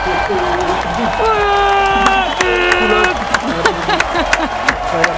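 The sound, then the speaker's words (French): An applause sound effect: a crowd claps steadily with sharp scattered claps, while excited voices whoop and cheer over the applause throughout, loud. “je vais tout à fait honnête avec vous, j'ai une minute trente d'applause, donc c'est reparti”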